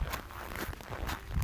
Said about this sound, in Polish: I nie były to moje kroki.